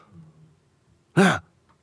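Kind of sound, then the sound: human body sound, deliberate cough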